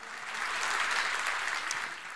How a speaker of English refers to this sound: If you're blessed by the message today, would you give the Lord a great hand clap for just speaking to us?